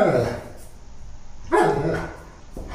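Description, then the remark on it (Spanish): A dog barks in two loud bursts about a second and a half apart, with a third bark starting at the end; no voices are heard. “¿Por qué ladras tanto?”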